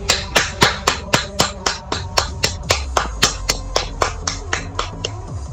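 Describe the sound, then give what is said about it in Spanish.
Steady, evenly spaced claps, about four per second, each one sharp and bright, continuing for several seconds with no voices, like a single person applauding in a brisk rhythm. “¡Aplausos, por favor!”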